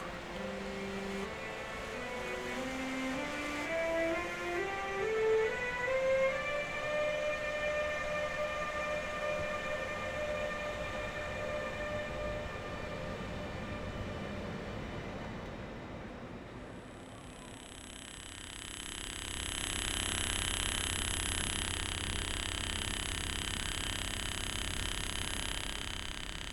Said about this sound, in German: Aus dem Zuglautsprecher kommt ein mysteriöses Störgeräusch. Die Frequenz liegt zwischen 2500 und 3500 Hertz. Wahrscheinlich wird das Geräusch durch eine Interferenz im Stromkreis erzeugt.